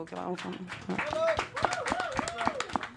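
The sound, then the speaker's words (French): A few people clap their hands in quick, uneven bursts throughout, while voices talk and laugh with rising and falling pitch over the applause. “Mais euh, ouais, ouais, on peut applaudir la pizza.”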